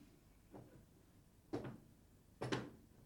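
A door creaks open in three short, groaning bursts, the first faint and the last two louder and rising in pitch, with quiet room tone between them and no voices.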